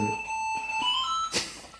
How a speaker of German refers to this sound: Das klingelt das Telefon. Wer ist das jetzt?